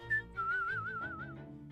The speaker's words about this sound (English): Grandma places the doll carefully back into the pram and walks off whistling.